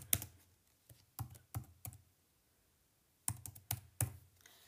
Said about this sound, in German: Ja, ich, ich kann nicht auf dieser Tastatur schreiben. Ich bin einfach zu dumm dafür.